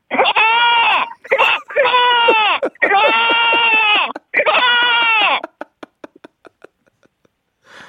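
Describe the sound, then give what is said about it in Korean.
A person doing frog and goat sound imitations lets out four loud, wavering goat-like bleats in quick succession, clear, followed by a series of short, quieter clicking or croaking pulses. “자, 개구리와 염소 소리 가겠습니다.”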